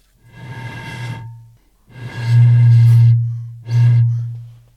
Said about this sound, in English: Much harder to blow into a milk bag than a milk jug.